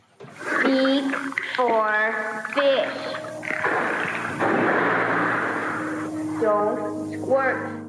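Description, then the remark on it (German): A dolphin makes squeaky, warbling vocal sounds that mimic human speech, several fairly loud bursts rising and falling in pitch, with a long breathy, hissing stretch in the middle; recorded during training sessions teaching the dolphin to speak, with the blowhole on its head. “Genau, man hört so Laute. Es ist natürlich auch schwer mit seinem Delfin-Blowhole auf dem Kopf.”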